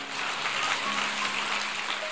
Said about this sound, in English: And if you receive that, give the Lord a great hand clap of praise right now.